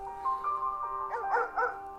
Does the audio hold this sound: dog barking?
yes